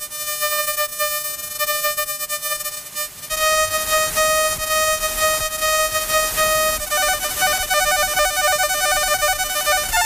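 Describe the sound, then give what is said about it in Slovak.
A steady electronic whistle with stacked harmonic tones, shifting partway through into a rapidly pulsing, warbling pattern, loud and continuous with no voices: very short weather radar pulses heard as whistling. “Takže bude najprv zameriavací letiskový, potom bude ten meteorologický a potom bude ten VOR.”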